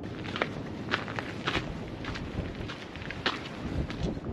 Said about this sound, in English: Ooh, it's getting a little windy.